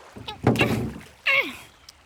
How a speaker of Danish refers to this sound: Så kan I bare komme ned i båden til mig